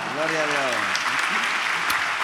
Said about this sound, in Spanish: ¿Cuánto dan un aplauso a Dios por eso, amado hermano?